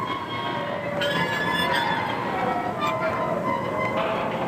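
Train wheels squeal on the rails in a continuous, shrill metallic whine layered over a steady rumble of passing cars, fairly loud and sustained throughout.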